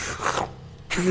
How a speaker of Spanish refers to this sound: Y el último sorbo, tienes que emitir un ligero sonido, ¿no? Para decir que has terminado todo y has disfrutado del.